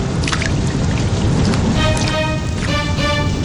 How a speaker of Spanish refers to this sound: El río está muy crecido y la lluvia no cesa.